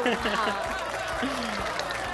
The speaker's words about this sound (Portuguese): Queria agradecer aqui a presença nossa primeira convidada, né? Palmas aí